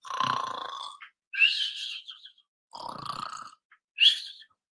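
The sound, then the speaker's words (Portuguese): A voice mimics a cartoonish snore twice: a low, rumbling inhale followed by a high, whistling exhale, repeated in a steady comic rhythm, close and fairly loud with no words. “Aquele ronco de desenho animado.”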